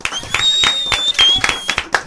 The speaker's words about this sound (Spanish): Yo quiero un aplauso, para Aníbal.